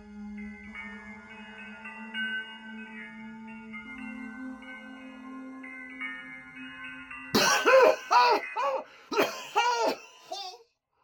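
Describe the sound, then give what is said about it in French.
A soft, steady musical drone plays, then is abruptly cut by a violent coughing fit: five or six harsh, loud, close bursts in quick succession, ending with a final strained rasp. “Une quinte de tout violente le surprend, une quinte qu'il n'avait jamais connue auparavant.”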